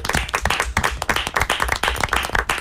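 A group of people claps hands in steady applause for everyone out there, dense overlapping claps filling the whole stretch at a lively, fairly loud level, with no talking over it.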